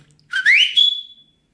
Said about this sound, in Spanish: Y ese era el de la familia. Mi papá llegaba y chiflaba... Algo así.